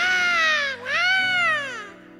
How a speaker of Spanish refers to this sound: ¡Wow! ¿Te acuerdas? El primer llanto.